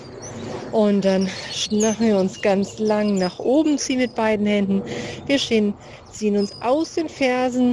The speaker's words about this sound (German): Ich hoffe, ihr hört auch die Vögel im Hintergrund